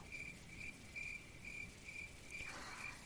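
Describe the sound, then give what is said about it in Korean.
An insect chirps with its wings steadily in short, regular pulses about every third of a second, a thin high trill riding over a soft wash of rain patter, fairly quiet and with no voices. “하지만 어여쁜 날개 소리도 있어요. 마치 비에 불어오는 것 같은 날개의 소리, 울음소리.”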